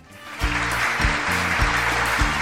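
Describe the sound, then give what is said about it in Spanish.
A crowd bursts into steady, dense applause, dedicated by the host to the audience, after a quiet start, the clapping holding a loud, even roar while low, rhythmic tones pulse underneath. “Este aplauso es eh, para ustedes.”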